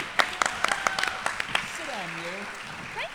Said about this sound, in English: And a big round of applause for the person really who keeps this podcast going.